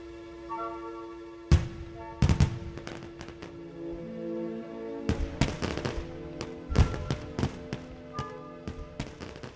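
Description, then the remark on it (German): Fireworks exploding in a scattered, irregular sequence of sharp bangs and crackling pops, some clustered close together, over a steady humming background with no talking. “Was ich wunderschön finde an einem Feuerwerk, ist die vergängliche Schönheit und der kurze Moment der Schönheit.”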